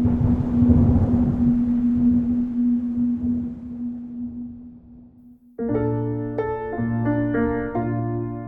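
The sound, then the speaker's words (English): The Beetham Tower sounds in a stormy wind one evening: gusty roaring with a steady low hum, then a sudden switch to loud, eerie harmonic drones that step between pitches, with no voices. “was storming one evening, really early hours”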